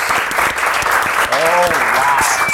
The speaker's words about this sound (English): Oh, wow. Nice. That was a very excited slow clap.